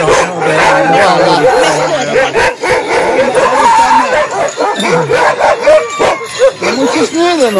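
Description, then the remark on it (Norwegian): A dog, Indie, a loud white dog with a brown head, barks loudly and repeatedly, with short yips in between, while people talk over the commotion. “Indie er en høyrøsta og hvit hund med brunt hode.”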